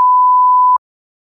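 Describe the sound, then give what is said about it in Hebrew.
A single steady electronic censor beep tone, loud and pure, holding for about three quarters of a second before cutting off abruptly into silence, with no voices. “שמת ביפ.”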